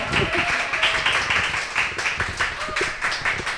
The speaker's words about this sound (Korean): 박수 한번 다시 주세요.